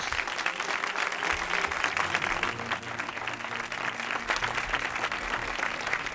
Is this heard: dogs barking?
no